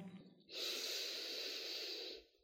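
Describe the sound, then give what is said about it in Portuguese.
A single long, airy breath in and out, steady and unhurried for a couple of seconds before fading out, taken with a hand resting on the belly near the navel, with no talking. “Então talvez você possa colocar, eu tô assim nesse momento, né, com a mão na minha barriga, na região do meu umbigo, enquanto eu inspiro e expiro.”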